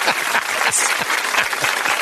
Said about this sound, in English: So let's give a hearty applause for some good old fashioned casual racism.